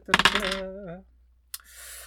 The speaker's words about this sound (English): Uh, and I will use uh, one of my, my my boosted dices on this. So I'll reroll on two d six.